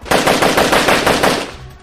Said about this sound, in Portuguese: mas o motoqueiro ele é muito bom, ele desviou e agora ele tá do lado do carro de vocês atirando sem parar contra o vidro.